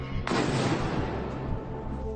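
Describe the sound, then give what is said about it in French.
A sudden loud burst of gunfire or a blast erupts after a brief quiet moment, followed by a sustained rumbling roar that lingers without fading. No voices are heard. An explosive drone being shot down in mid-air over the Moscow region in the morning, about 450 km from the Ukrainian border. “Huit drones explosifs ont visé la capitale, tous neutralisés dans les airs, selon l'armée russe.”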